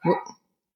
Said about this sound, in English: Sorry about my dog. Like Max right now, right?